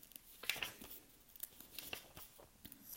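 Soft papery rustling and crisp swishes of book pages being turned, several quick flips at low volume, with no one speaking.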